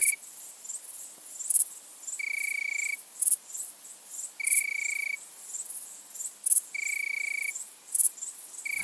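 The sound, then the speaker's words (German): An Italian tree cricket (Weinhähnchen) sings soft, pure trills about three-quarters of a second long, repeating steadily every couple of seconds over a dense bed of faint, high-pitched insect chirping on a mild August night in Vienna. “Und der Abschluss ist eigentlich der klassische in Wien ist das Weinhähnchen.”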